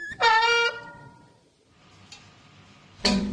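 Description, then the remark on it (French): A bicycle brake lets out a loud, sustained squeal for about half a second, followed by a quiet pause, a faint tick, and then a bright metallic clank of struck spokes. “un frein qui grince, des rayons qu'on frappe, et c'est parti.”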